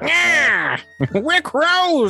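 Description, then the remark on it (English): A person imitates a crow with two long, drawn-out, nasal caws, one at the start and one at the end, with a few quick spoken words in between. “Oh, a crow sounds much like this.”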